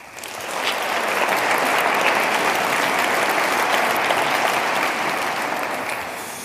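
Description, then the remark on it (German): A room full of people claps steadily to welcome guest Bernd Ulrich at a discussion event, a dense, even wash of applause that swells in quickly, holds for several seconds, and tapers slightly at the end, with no one speaking over it. “Ihr Applaus.”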